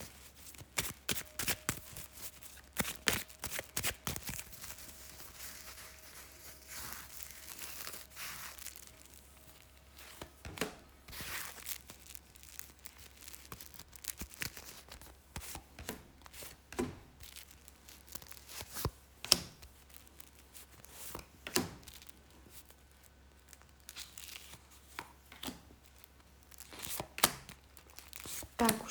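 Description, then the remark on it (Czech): Tarot cards being shuffled during a partner tarot reading: a steady run of quick papery flicks, riffles and soft slaps that continues throughout, with brief louder bursts and no talking. “Já už se dívám na vaše fotky, míchám u toho karty a my se spolu podíváme, co nám ta rod poví o vás dvou.”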